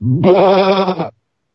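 One loud sheep bleat lasting about a second, with a wavering, quavering tone, heard alone and then cut off abruptly into silence.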